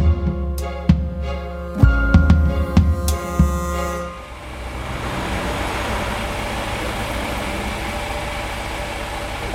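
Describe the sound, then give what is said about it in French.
A bus engine drones steadily with a few sharp rattles and knocks, then gives way to a continuous wash of road and traffic noise as the bus rolls on along the Parc de Sceaux toward the Butte Rouge garden city. No one speaks. “Donc, je vous ferai un petit speech sur la butte rouge, générale, quand on descendra du bus.”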